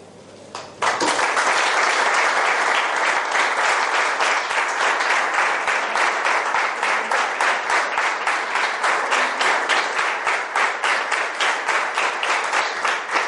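A large crowd bursts into loud applause that settles into synchronized, rhythmic clapping, beating together at a steady pace of roughly two to three claps per second for over ten seconds.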